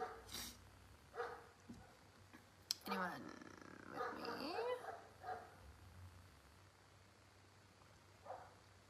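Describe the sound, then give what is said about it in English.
Dogs bark in short bursts, a few yips and barks clustered together, while a person talks quietly over a low steady hum. “They stop barking.”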